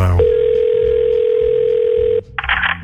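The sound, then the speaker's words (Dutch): A steady, unbroken telephone dial tone as someone places a call to security hums at one low pitch for about two seconds over a faint rumble, then cuts off abruptly and gives way to a short burst of hissy noise. “Als je het dan heel even moment hebt, dan bel ik hem op.”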